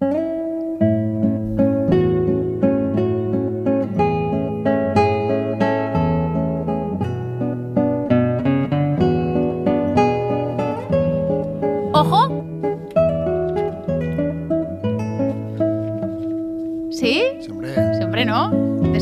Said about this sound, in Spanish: escuchamos ahora un instrumento solista muy nuestro, la guitarra española